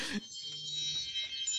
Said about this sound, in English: No, that's my alarm. It goes off uh, at ten thirty every night so that I can watch the next God's Not Dead.